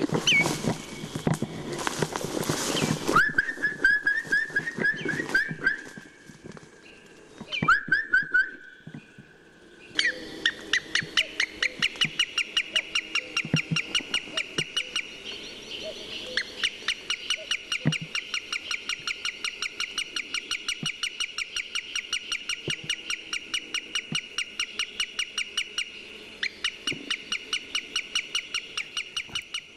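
Calls of a greenshank and a wood sandpiper, the greenshank moving closer: brief noisy bursts at first, then a long, steady run of rapid, sharp, high-pitched notes repeating rhythmically, with no talking.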